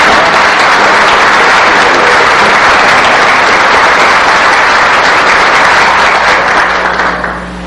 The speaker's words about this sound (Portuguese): Essa merece uma é salva de palmas, né?